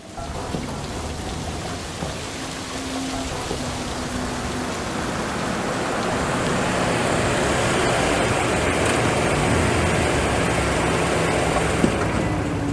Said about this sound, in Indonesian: Lo jangan keluar dulu hujan deras biar gue payungin aja soalnya lo pasti ribet bawa tas